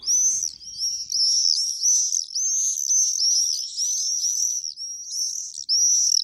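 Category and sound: bird, common swift calls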